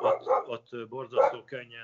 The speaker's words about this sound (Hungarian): várjál csak a kutya elkezdett ugatni. Hát ez a kutya ilyen egy az én kutyám ott szép csöndben van, de most elkezdte hegyezni a fülét, hogy mit hall.